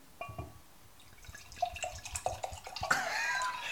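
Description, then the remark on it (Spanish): A drink poured from a bottle into a glass, starting with a run of glugging gurgles that rise in pitch, then settling into a steadier splashing stream. No one speaks. “Tranquilo, nos servimos nosotros. Vamos a darle, sírvete ahí. Escuchen este sonido.”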